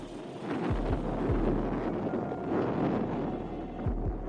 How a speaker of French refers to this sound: C'est déjà la deuxième explosion en Crimée depuis le début du mois, après la première intervenue le 9 août au nord de Sébastopol.